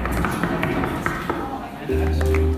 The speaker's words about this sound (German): Von Sitzreihe zu Sitzreihe verbreitete sich das Klopfkonzert, bis es den gesamten Hörsaal erfasst und, genauso schnell wie es aufgeflammt war, auch wieder verstummte.